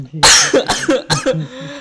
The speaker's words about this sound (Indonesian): asu asu batuk nggak sembuh sembuh bangsat, bangsat.